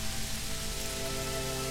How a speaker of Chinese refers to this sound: 天边那片逐渐逼近的乌云，带来了一场冰冷的骤雨。这场寒雨如同一条从天而降的湿淋淋的灰白色的鞭子。抽打着小男孩的脸和手。